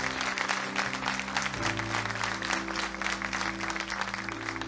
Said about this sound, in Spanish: Si va a aplaudir, hágalo con fuerza para el Señor.